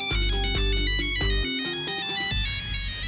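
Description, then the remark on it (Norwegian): A bright, synthetic polyphonic phone ringtone plays a quick melodic jingle with stacked electronic tones and a punchy bass line, loud, with no voices. “I 2001 er det Nokia 3310 og polyfoniske ringetoner som gjelder.”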